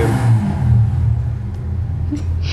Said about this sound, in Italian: scusate, l'ho interrotto perché c'è qualcuno tipo mi è entrato in salotto con la moto